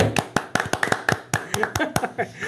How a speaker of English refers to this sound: So I have a round of applause, please.